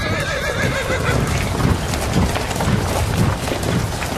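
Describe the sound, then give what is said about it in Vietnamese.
A horse whinnies with a rising, wavering neigh while hooves clop steadily beneath it, fairly loud, with no voices present; a rider on horseback stands in the middle of the road at Chi Lăng pass. “Khi tới ải Chi Lăng Quách Quỳ thấy một tay giang hồ lạ mặt nào đó Cưỡi ngựa đứng giữa đường”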